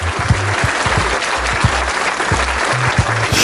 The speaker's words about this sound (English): I don't think y'all should laugh. I think that's more like a round of applause.